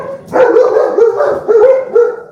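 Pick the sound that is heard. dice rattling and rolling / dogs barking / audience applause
dogs barking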